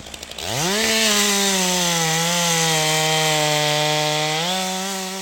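A chainsaw starts with a few short pulls, then revs up into a loud, steady high-pitched whine that holds for several seconds as someone saws down an oak tree beside Kantora Street in Mārupe, by the construction site of an abandoned two-story apartment building.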